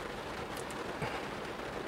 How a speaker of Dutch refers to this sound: het is de herfst. Regen, koud.